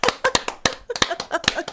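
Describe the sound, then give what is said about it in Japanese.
Quick, sharp hand claps, about a dozen in under two seconds with a slightly uneven rhythm, like a brief round of applause for oneself. No one speaks. “今日じゃあ自分に拍手するとしたら何？”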